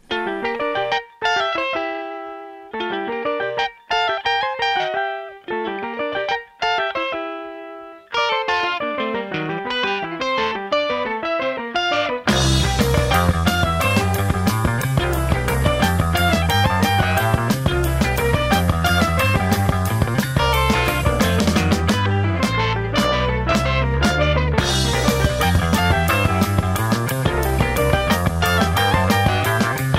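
A progressive rock song plays with no talking: a sparse, stop-start guitar intro with clipped chords, then at about twelve seconds the full band crashes in, loud and dense with driving drums and bass.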